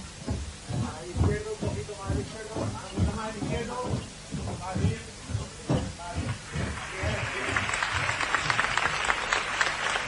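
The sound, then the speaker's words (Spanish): A crowd at a Holy Week (Semana Santa) procession bursts into loud, dense applause in the final few seconds as the image of the Lord enters and turns, swelling over a stretch of rhythmic low thumping and voices. “Y esta ráfaga de aplausos de emoción incontenible, mientras el Señor ya revira hacia la derecha.”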